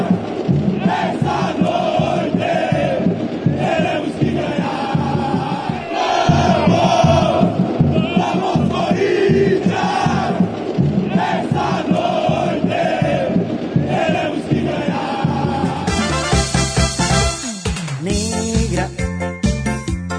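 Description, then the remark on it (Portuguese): A large stadium crowd of Corinthians football supporters sings a chant together, loud and sustained with rhythmic swells, voices merging into a dense roar; near the end it shifts to choppier, repeated bursts. The chant's melody is adopted from South American supporters' songs. “Essa canção que é inspirada, a gente está ouvindo ao fundo”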